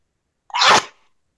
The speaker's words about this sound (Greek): Φτερνίστηκα. Το ξέρω, αλλά ακούστηκε σε γάβγισμα εδώ.